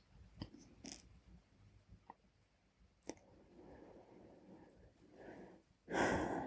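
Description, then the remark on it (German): Breathing, with soft airy inhales and exhales, scattered mouth clicks, and a louder, rushing breath at the end. No one speaks. “Ja, ein Atmen.”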